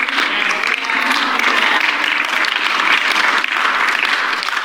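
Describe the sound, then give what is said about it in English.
Loud, sustained applause from an audience, a dense steady patter of many hands clapping at once with no gaps, filling the whole stretch without any speech over it. “You won't clap in a little bit.”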